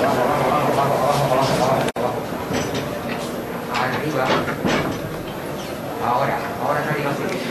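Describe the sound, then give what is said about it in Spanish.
The large, heavy main door of a church, closed for four years, is pushed open slowly as its huge leaves turn, amid a steady wash of crowd noise and voices, with dull scraping and knocking as it gives way, as a brotherhood sets out on its penitential procession. “Están girando esos postigos enormes que tiene parece que está costando un poquito. Estaba cerrada, bien cerrada.”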